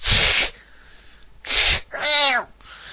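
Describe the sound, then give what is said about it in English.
A person's voice does loud cat impressions: two breathy, hissing bursts followed by a rising-and-falling meow, all close and clear with brief pauses between. “I'll be a cat.”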